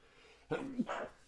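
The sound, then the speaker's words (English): A single sneeze with a brief sharp intake followed by a breathy, hissing burst lasting about half a second, standing out clearly against a quiet background with no talking. “Bless you.”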